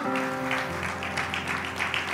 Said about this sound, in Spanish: Nos ponemos de pie de un aplauso, alabanza al Señor.